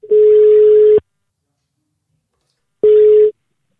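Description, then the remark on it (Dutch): A telephone ringback tone while calling: two steady, mid-pitched electronic tones, the first about a second long, then a pause of nearly two seconds before a shorter second burst. “Ik ga eens even kijken of ik hem kan bereiken.”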